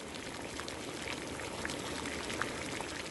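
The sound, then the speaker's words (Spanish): Water pours steadily into a pot holding washed potatoes, to be boiled, a continuous hiss of running liquid broken by a few brief plops and splashes. No one speaks. “Primero tenemos que lavar las papas y ponerlas a hervir con agua en una olla.”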